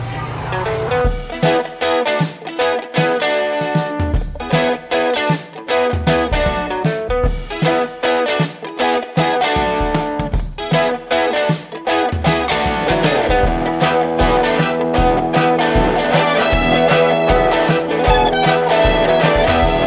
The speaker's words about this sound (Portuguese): Solta a vinheta aí.